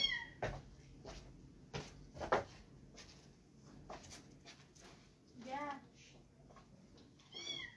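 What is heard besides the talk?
cat meowing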